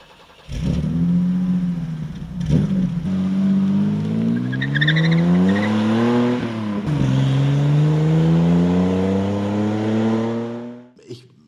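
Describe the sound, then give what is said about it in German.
A BMW 3.0 CS coupe engine revs loudly, its pitch climbing through several gear changes in a sustained run before cutting off abruptly near the end. “Los geht's, hier kommt ein 3,0 CS.”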